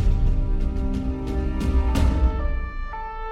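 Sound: police car siren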